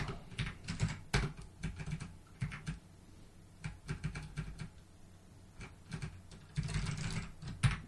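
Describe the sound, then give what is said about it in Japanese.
Rapid typing on a computer keyboard in quick bursts of sharp clicks, with brief pauses between flurries, fairly quiet, with no voices. “タイピング早いですね、やっぱり。”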